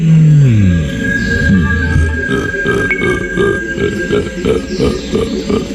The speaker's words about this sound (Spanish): Es un hipopótamo.